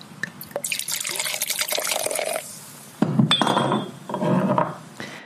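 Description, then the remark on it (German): Glasses clink together in a toast, with a brief ringing chime amid splashy, liquid sloshing and pouring sounds. No one speaks. “Prost!”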